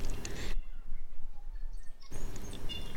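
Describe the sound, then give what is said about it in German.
A tui, a bird endemic to New Zealand, gives harsh, guttural croaking calls in two rough bursts, separated by a quieter stretch with faint thin whistles, with no talking. “Ähm, er kann mit seiner Stimme so ziemlich alles, also auch imitieren, krächzen, schnurpsen, singen, seltsam gutturale Laute von sich geben.”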